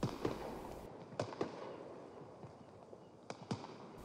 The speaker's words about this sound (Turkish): Gözlerini kapatmış, havai fişekleri dinliyor.